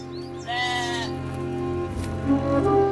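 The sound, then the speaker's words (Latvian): A lamb bleats, one wavering cry followed by a second shorter bleat, over a steady low background hum. “Vienīgi viens pats ieriņš, vēl glumži mazs, ko viņš bija pircis un izaudzējis, un kas pie viņa bija izaudzis kopā ar viņa bērniem.”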